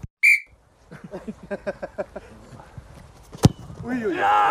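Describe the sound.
A single short, shrill referee's whistle blast, blown to restart play, sounds near the start, followed by a run of rhythmic knocking pulses and voices, with noise swelling toward the end.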